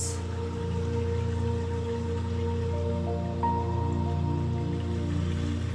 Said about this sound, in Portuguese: Vamos ouvir o barulho da água da vida circulando perto de nós, nos conectando a essa energia.